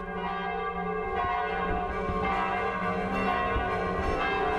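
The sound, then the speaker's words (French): Church bells ring out across France at dusk during the lockdown, in a dense, overlapping peal, rich sustained tones layering continuously with steady loudness, resonant, with no voices present. “Et au crépuscule du neuvième jour, les cloches ont fendu le silence partout en France, dans nos villages, dans nos villes.”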